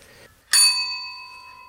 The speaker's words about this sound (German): Und dann habe ich so recherchiert ein bisschen und wir hatten einige Objekte sogar gefunden in diesem Haus. Zum Beispiel diese Glocke hier.